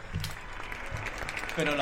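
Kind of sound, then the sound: crowd, neighbours applauding from balconies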